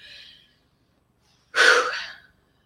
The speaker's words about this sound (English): So for me, that's when I take a deep breath and I just I breathe in and I breathe out. Breathing is another practice of presence.